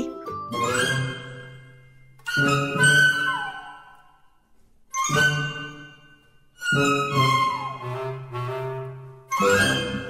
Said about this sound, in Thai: เอ๊ะเสียงออดดังแล้ว อุ้ยต้องไปเข้าเรียนแล้วล่ะค่ะ